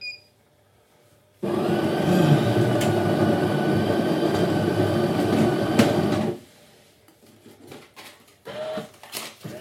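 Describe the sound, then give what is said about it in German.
A milk frother whirs steadily, frothing milk in a metal milk jug for about five seconds, a loud, dense buzzing hum that cuts off abruptly, followed by faint clinks and handling noises. “Und jetzt das lustige Geräusch von der metallenen Milchkanne.”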